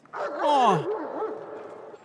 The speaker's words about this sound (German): Ja, also während der Hund bellte,